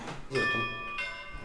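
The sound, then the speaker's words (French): A mobile phone ringtone imitating a railway station bell chimes twice in quick succession, bright ringing tones that sustain and overlap, with a brief murmur of voice just before. “Alors votre téléphone fait un bruit de, cloche de gare, c'est ça Exactement.”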